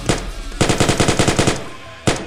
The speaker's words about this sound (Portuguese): Tem alguém na frente dela e ela escuta o barulho de tiro, só que não é só um tiro, são vários.